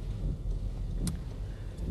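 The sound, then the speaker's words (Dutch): Steady low rumble of a car interior while driving, with a dull road drone throughout and one brief click partway through. No one speaks. “Dus ik denk, hup, in de auto.”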